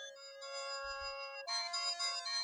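Bright, buzzy 8-bit chiptune music plays alone, a synthetic melody of sustained electronic tones that jumps to a louder, brighter phrase of pulsing notes halfway through.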